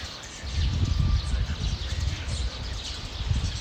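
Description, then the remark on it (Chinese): Many birds chirp and twitter in an overlapping chorus in a city in spring, a busy but fairly faint layer of high calls over a steady low rumble of background noise, with no one talking. “然后我顺着那个枝条在那边停留一会儿，就发现我周围有超级超多的鸟声，我从来没有在城市里面听到过这么多鸟声，所以我就录了一小段关于那个鸟声的。”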